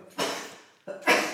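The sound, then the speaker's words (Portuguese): Two loud, breathy sneezes in quick succession, each a sharp hiss of noise that starts abruptly and trails off, with a brief quiet gap between them and no talking. “Deus te abençoe.”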